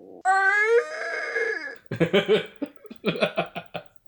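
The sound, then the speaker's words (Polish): A voice imitates a loud, drawn-out yell that glides downward, then breaks into a rapid series of rhythmic, guttural ritual grunts and shouts, forceful, with no other sounds around it. “twoje komórki komunikują się za pomocą krzyku. Rytualnie pochrząkiwań.”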